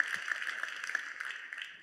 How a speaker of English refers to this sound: So give yourself a big round of applause, if you will, for being awesome.